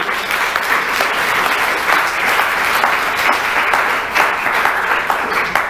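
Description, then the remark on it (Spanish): A church audience breaks into sustained applause for the Lord, a dense, steady wash of many hands clapping at even loudness for several seconds, with no voices standing out above it. “¿Cómo no le damos un aplauso al Señor más grande?”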